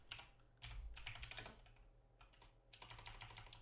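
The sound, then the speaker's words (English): Rapid clattering keystrokes on a computer keyboard, coming in bursts with a brief pause in the middle, fairly quiet over a low background hum. “Excuse my keyboard.”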